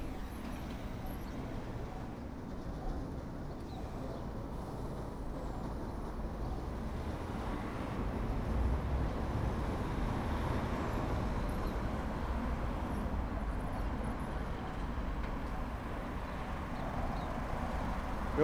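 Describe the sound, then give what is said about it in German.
Steady traffic on Triester Straße, heard from opposite the main entrance of the Zentralfriedhof, rumbles continuously, a broad low roar of passing cars and heavier vehicles, swelling slightly partway through with no voices. “Ich wohne in der Nähe der Denkenhofsiedlung und stehe hier vom Haupteingang des Zentralfriedhofs gegenüber der Lauzilgasse und lausche den Verkehr in der Triesterstraße.”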